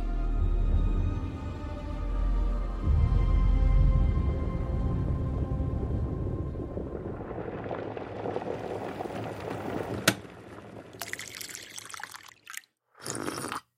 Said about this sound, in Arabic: هي كوبايه القهوه دي هي الحلقه ما بتحلوش الا بكوبايه القهوه ومهم هنا بقى اقاطع نفسي دلوقتي يا مستمعي لاني زي ما انت سامع كده قمت اعمل كوبايه قهوه عشان تساعدني في الحلقه دي